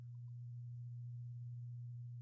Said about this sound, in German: Irgendwas brummt hier tierisch gerade. Da druckt jemand gerade seine Einkommensteuererklärung aus.